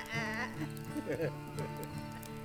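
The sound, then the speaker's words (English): A person's voice imitates a sheep, giving a few wavering, nasal bleats in quick succession, fairly loud over a steady hiss of background noise. “Well, I had a sheep, and the sheep pleased me, and I fed my sheep under yonder tree, and the sheep went. Bah. Bah.”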